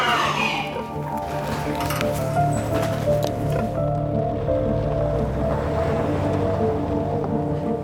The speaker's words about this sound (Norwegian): Bilen snur og kjører av gårde. Ok. Bilen har kjørt vekk, men vi kan fortsatt se den.